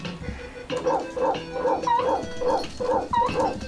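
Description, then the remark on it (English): A dog in a video game yelps and whimpers in a quick, steady string of about ten high-pitched cries, fairly loud over a low background hum. “Why do other dogs hurt me?”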